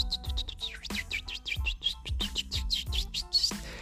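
A small bird chirps rapidly and continuously, a steady stream of bright, high tweets layered over a soft, low thumping beat and faint musical tones.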